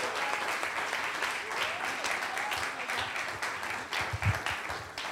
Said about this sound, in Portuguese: Vamos aplaudir também ao Senhor pela vida dela, em nome de Jesus.